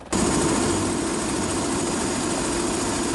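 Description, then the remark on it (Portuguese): A steady, loud mechanical roar with a low throbbing hum of a helicopter's engine and rotor running continuously, with no talking; a helicopter rescuing a pregnant woman in flood-hit Bahia, Brazil. “Essa mulher grávida, que precisava ir para o hospital, foi resgatada de helicóptero.”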